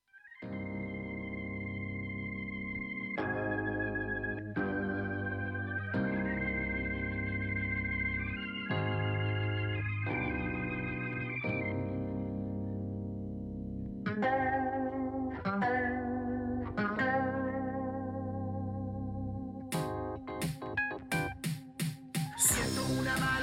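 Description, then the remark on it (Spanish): An instrumental electronic song with a prominent, distorted lead bass line and sustained keyboard chords, steady and loud, with sharp drum-machine hits breaking in toward the end. “Lo único que utiliza para todo es su voz, un bajo protagónico y una drum machine y algunos teclados, por supuesto. Así que vamos a escuchar la última canción de”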